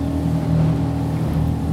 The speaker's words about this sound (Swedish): Tyvärr går min båt på bensin då, då som jag har här, men eh, det kanske kan bli ändring på det. Ja, Korsa Mysingen med en relativt liten båt